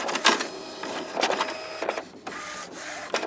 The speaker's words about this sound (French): Heureusement aujourd'hui, une imprimante, c'est plutôt ça.